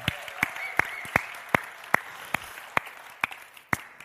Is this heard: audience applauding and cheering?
yes